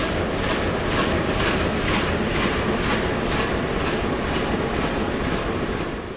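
A diesel train engine runs steadily, its air intake roaring as it draws in air and the exhaust burbling in a rapid, pulsing rhythm for several seconds, with no voices.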